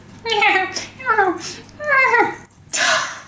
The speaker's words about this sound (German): Plötzlich hörten sie ein süßes Babygeprabbel.